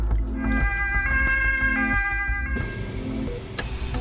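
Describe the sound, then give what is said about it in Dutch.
A loud ambulance siren wails, its two tones alternating steadily over a low rumble of traffic noise, with no one speaking. “ambulance is dus het adres van het noodgeval.”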